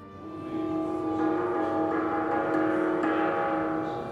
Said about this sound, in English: And don't forget to ring the dressing gong before you go.